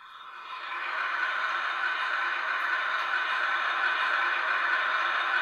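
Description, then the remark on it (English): A toilet privacy button plays a steady, rushing flush-like whoosh that swells in over the first second, then holds at an even level throughout, with no one speaking. “Um, they've also got the privacy button, or if you want to play a sound that sounds like this.”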